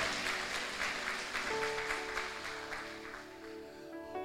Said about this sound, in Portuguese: Você crê nisso? Dá um aplauso ao Senhor Jesus.